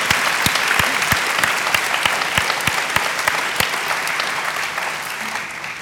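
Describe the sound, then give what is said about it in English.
An audience breaks into steady applause, a dense wash of many hands clapping with a few sharper individual claps standing out, holding fairly even and then easing slightly toward the end. “And let, let me also add this you can clap first.”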